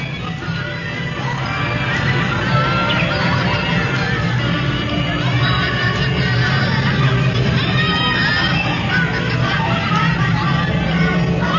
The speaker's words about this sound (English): Uh, you can hear the sound of the birds and hippopotami conversing in the back. Listen.